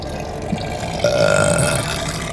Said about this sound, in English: He belched